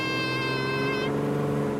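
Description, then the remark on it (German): A small propeller airplane engine drones steadily and loudly on a flight into Pantanal National Park, its buzzing tone holding an even pitch throughout; the brighter upper whine cuts out partway, leaving a lower hum. No voices. “Um Wasserschweine genauer beobachten zu können, fliegen wir mit einem Mini-Flugzeug in den Nationalpark Pantanal.”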